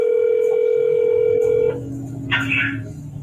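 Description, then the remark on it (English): A steady telephone dial tone hums for a second and a half, then cuts off into quieter line noise with a brief burst of higher electronic tones, like a number being dialed. “It's this week's phone scan. Check it out.”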